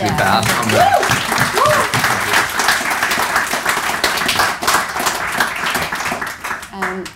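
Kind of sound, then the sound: crowd, round of applause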